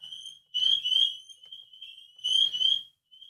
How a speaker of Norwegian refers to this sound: Jeg har jo linka sammen røykvarsler, det er fem forskjellige røykvarsler i dette huset i alle etasjene som jeg har linka sammen,